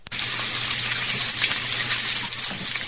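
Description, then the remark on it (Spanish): Pork carnitas frying in a pan: a steady, dense crackle and hiss of sizzling fat that starts abruptly and holds at an even loudness for about three seconds, with a faint low hum beneath and no talking. “Ella dice que son carnitas de puerco friéndose, ¿sí o no?”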